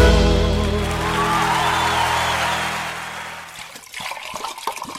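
Freshly heated hot water pours steadily in a loud, rushing stream, then tapers off into softer trickling and a few small clatters near the end. No one speaks.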